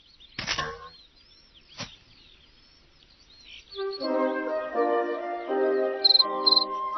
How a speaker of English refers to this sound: Welcome, chirped a big cricket, rubbing his wings together.